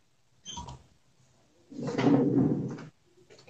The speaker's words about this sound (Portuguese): Acho que vou dar uma fechadinha naquela porta ali pra melhorar um pouquinho a luz